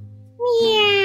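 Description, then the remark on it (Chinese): A voice imitates a big spotted cat with a single drawn-out meow, rising from low tones into a bright, sustained high-pitched cry that holds steady and loud to the end. “就是大花猫的叫声”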